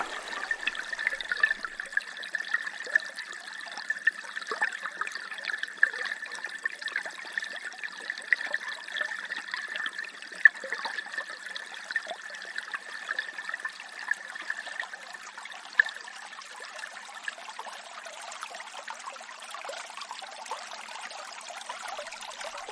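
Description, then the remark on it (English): A small river trickles and babbles steadily over stones way upstream near its source in the Glenasmole Valley, a continuous gurgle of running water with bright splashy detail and no voices, holding even for the whole stretch. “sound you're listening to is when that trickle is still a small river.”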